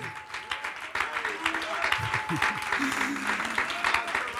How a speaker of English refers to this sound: Clap them, big brother. Clap those hands, big brother.